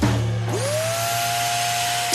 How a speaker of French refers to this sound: C'est votre nouvel aspirateur robot qui fait le ménage pendant que vous réservez vos vacances dans le sud.